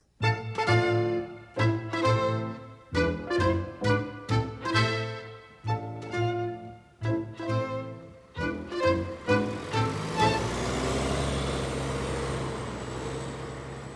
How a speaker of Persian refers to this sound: اتوبوس